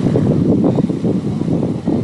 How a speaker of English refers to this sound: And the sea is back again.